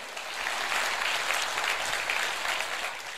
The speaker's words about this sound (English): If you believe that and receive it, give the Lord a great hand clap of praise. Hallelujah.